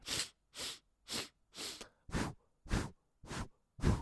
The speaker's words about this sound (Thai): การหายใจอันนี้มันมีแพทเทิร์นง่ายมากก็คือว่า หายใจเข้าทางจมูก4ครั้ง แล้วก็หายใจออกทางปาก 4 ครั้งนะครับมันก็จะเป็นแบบนี้